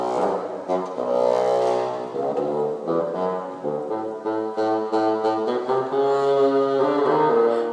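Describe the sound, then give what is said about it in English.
A bassoon plays the theme representing Peter's grandfather, a low, reedy melody of held and stepping notes in slow, lumbering phrases, steady and fairly loud with no talking. “Peter's grandfather represented by the bassoon”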